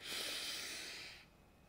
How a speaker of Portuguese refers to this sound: E quando eu percebo que eu estou nesse estado de tranquilidade, de conexão, de plenitude, aí eu faço essa grande respiração, né? Inspiro bem forte.